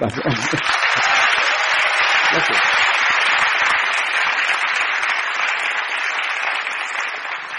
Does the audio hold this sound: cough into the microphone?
no